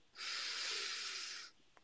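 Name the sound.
deep breath in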